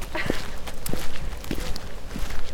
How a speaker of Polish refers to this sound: O, to będzie słychać kroki bardzo dokładnie. Wow!